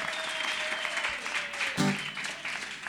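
An audience applauds steadily at the host's request, a dense wash of many hands clapping at a fairly even level throughout, with a brief louder burst near the middle and no voices standing out.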